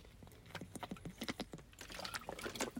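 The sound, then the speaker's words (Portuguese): Someone takes a drink of water, with a quick series of small wet clicks and gulps in an irregular rhythm, and no talking. “Vou dar aqui um gol d'água.”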